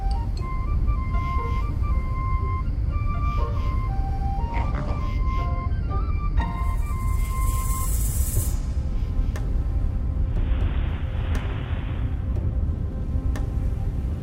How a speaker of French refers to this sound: Un bruit étrange se fit entendre. Un grondement, sourd et lointain, comme si un orage se préparait sous la terre.